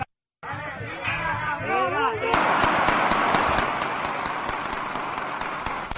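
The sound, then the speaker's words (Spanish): Crowd chatter gives way to a steady barrage of sharp gunshot cracks from real bullets, not blanks, fired in quick succession and mixed into loud, agitated crowd noise that continues to the end. “Esos son tiros de verdad señores.”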